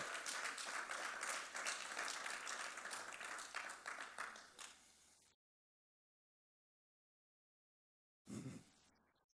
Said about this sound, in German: Applaus. Applaus